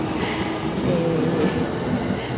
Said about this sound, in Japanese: はい、皆さん、えー、また電車が通った